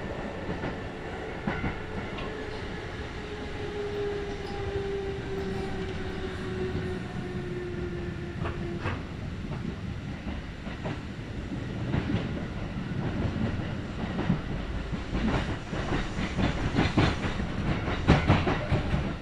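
A Kintetsu Nagoya Line local (all-stations) train, running from Shiohama toward Shiroko, rumbles steadily along the rails, with low continuous rumble, a fading tonal whine in the first half, and rhythmic clicks and clatter growing louder toward the end; no one speaks.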